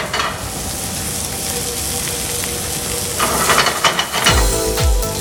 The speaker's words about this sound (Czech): Cinkání nádobí, smažení, krájení nebo broušení nožů právě jste měli možnost nahlédnout do kuchyně Sanduga Fusion Restaurant z Pražského Karlína.